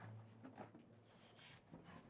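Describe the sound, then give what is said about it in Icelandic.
A faint, high, thin whine from a very thin dog in a cage in a garage, a brief whimper rising once out of a quiet, hushed background with low rumbling noise. “Þetta er búr. Og það er hundur í því.”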